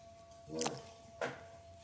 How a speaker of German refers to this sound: Es ist halt so, es ist halt der Stuhl, aber ich finde es bestimmt lustiger, wenn ich sage, ich habe gefurzt.